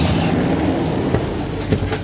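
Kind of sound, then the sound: vehicle, train door opening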